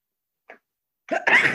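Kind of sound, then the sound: human body sound, sneeze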